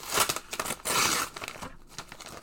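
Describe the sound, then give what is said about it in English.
Dry crinkling and rustling of the all-paper packaging of a Match Attax trading card mega multi pack being handled and unwrapped, with irregular crackly bursts and a brief louder tear-like rush in the middle, no voices. “And it's all paper as well.”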